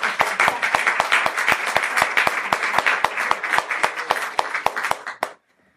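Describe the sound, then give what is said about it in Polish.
An audience breaks into steady, dense applause for the author of a book, many hands clapping at once with sharp individual claps standing out, holding fairly loud for about five seconds before cutting off abruptly. “ale tutaj to aż prosi się i moja prośba do Państwa, że to są brawa dla autora teraz.”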